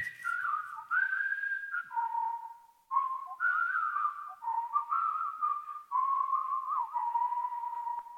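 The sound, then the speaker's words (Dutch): A single person whistles a bright, bouncy melody, imitating miners cheerfully whistling on their way to work, with sliding notes and steady phrasing that carries on for several seconds without any talking. “Maar ik heb dus zitten fluiten. Alsof die kompels die op weg gingen naar, eh, naar hun werk vrolijk aan het fluiten waren.”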